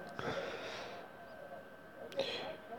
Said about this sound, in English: Mm, let me clear my throat.